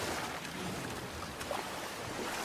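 A boat moving steadily across a lake towards a bridge, with a constant broad rush of water and wind and no voices.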